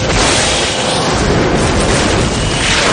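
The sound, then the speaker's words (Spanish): Loud explosions of missiles dropped by two fighter jets on rebel troops merge into one continuous roaring rumble, a dense wall of blast noise with no clear gaps between impacts and no voices. “Las explosiones y suceden... acabando con todo rastro de los rebeldes.”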